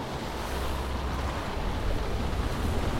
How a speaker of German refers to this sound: Das Brüllen des Sturmes, der Tenor der Wellen, Donner und Salz, all das verfluchte ihn gerade in einer Sprache, die er jetzt nicht verstand.